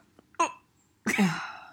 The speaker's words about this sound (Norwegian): Okay, kommer litt rap her.